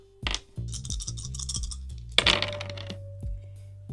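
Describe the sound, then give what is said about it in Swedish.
Dice clatter onto a hard tabletop in two close, rattling bursts, each settling into a few quick tapping bounces, with a faint steady hum in the background and no voices. “Men du har tärningar allihopa?”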